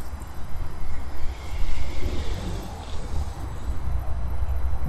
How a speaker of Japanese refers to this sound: お、今、ディーゼルエンジンが響き渡ってます。ああ、また違うエンジンが、なんか慌ただしくなってまい急に駐車場が走り出しましたけど、ちょっとノイズが入るかもしれませんが、まあ、現場の音ということで。